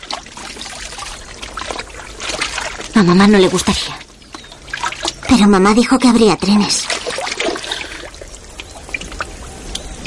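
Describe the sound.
Steady trickling, splashing water runs throughout as a girl washes her sister's hair in a river, with two short stretches of a person talking over it in the middle.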